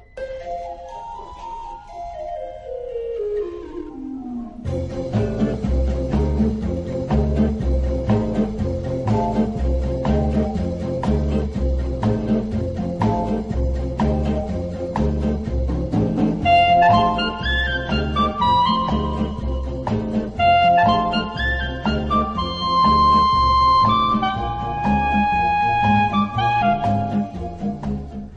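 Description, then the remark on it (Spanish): Playful, bouncy film-score music written for a safari film, with a plodding bass beat that suggests lumbering elephants. It opens with a sliding downward swoop, then a steady, loud instrumental groove with perky organ-like melody lines and no voices. “poca gente sabe cuando escucha esta música que es que está creada para una película de safaris, José María.”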